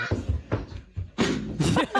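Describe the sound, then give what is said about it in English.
A child wearing goggles runs into a screen door with a dull, rattling thud partway through, followed by a brief clattering shake, amid lively voices and background chatter. “Ran into the screen door.”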